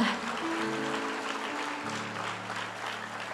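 An audience applauds steadily for a few seconds, a dense, even wash of clapping at constant loudness, with a faint low hum of sustained tones underneath.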